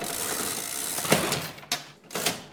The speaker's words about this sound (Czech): pan Gehert zatočil kličkou, nastavil na té pokladně různá čísla a potom, když se ta pokladna otevřela, tak vlastně mohl vydat zbytek tomu, kdo mu zaplatil třeba právě za vstupenky